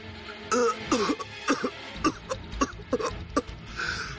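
A man gives a series of harsh coughs and throat-clearing bursts, irregular, repeating about a dozen times over a few seconds with raspy, strained breaths between them.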